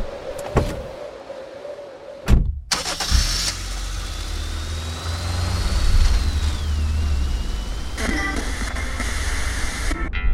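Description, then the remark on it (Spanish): A car engine cranks and catches after a brief quiet stretch, then settles into a steady low rumble that keeps running to the end, with no talking; the car is travelling through Patagonia, Argentina. “la Argentina hay 45 parques nacionales y ahora mismo yo y este auto con el que vengo moviéndome por la Patagonia estamos viajando hacia uno de ellos, el Parque Nacional Los Glaciares.”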